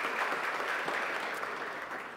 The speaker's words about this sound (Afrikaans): Geef hulle lekker hande klap.